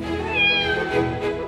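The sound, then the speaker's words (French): A cat meows in one drawn-out, rising-and-falling cry lasting over a second, fairly loud, with no talking over it. “Ah non, non, non, ça c'est un chat, hein, pas un serpent.”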